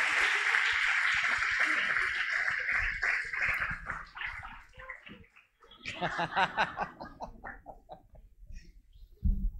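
An audience claps warmly for several seconds to welcome a pastor at a church gathering, a dense crackling applause that gradually thins out as a voice begins speaking over the fading claps.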